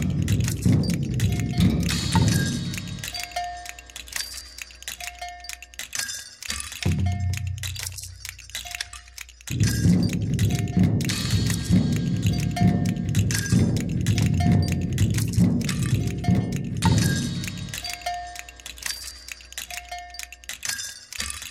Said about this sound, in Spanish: La banda nerviosa autónoma es una orquesta de arañas robots que improvisan ritmos en tambores, cascabeles, maracas, teponazles y campanas.